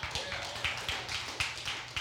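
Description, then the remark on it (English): Hand clapping from an audience, a steady run of sharp claps at a quick rhythm, moderately loud, with no one talking over it. “I appreciate the hand clap and the amen, but I don't say it for that.”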